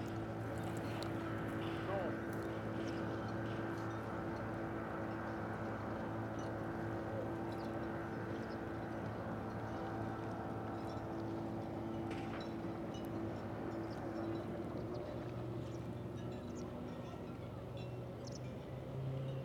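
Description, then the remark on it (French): A boat engine drones steadily and loudly as the boat leaves the port, a low rumbling hum with churning water noise layered over it, holding an even level throughout. “le moteur sort du port.”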